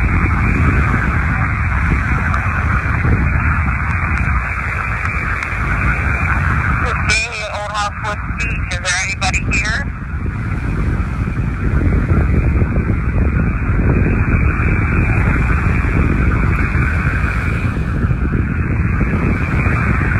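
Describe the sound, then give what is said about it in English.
Loud, constant roar of wind buffeting the microphone mixed with the rumbling wash of crashing ocean waves, unbroken throughout, with a brief brighter rustling burst partway through. “It's hard for us to hear because of the waves and the wind going on.”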